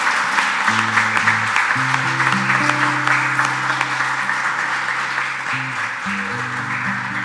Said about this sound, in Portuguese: Você pode dar um glória a Deus aí bem forte. pode dar uma salva de palmas para esse Jesus maravilhoso.